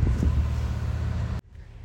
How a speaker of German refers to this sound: jetzt kommt der LKW